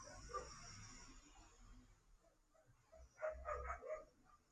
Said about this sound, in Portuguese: Está passando o caminhão do lixo e a a Karina late bastante com os caminhões.